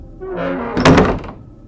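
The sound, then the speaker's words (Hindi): A door creaks briefly on its hinges, then is pushed open very hard by someone and bangs with a loud, heavy thud, followed by a short rattling decay. No voices are present. “मैं दोबारा से उठा और दरवाजा फिर से बंद कर दिया और इस बार अभी बेड के करीब पहुंचा भी नहीं था कि दरवाजे को किसी ने बहुत जोर से धक्का दिया”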